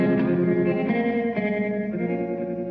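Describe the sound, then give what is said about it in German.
The closing moments of a recorded song, with dense, sustained instruments and a heavily effected, slightly distorted tone ringing out, loud and steady, fading only a little. No one speaks. “Aber das Lied ist dann bekannt worden, wo, wo der Film äh, Kill Bill ist bekannt wurde.”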